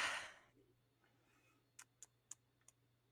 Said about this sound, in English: It's hard to keep up because I'm not writing it down. I'm um, typing it out on stream.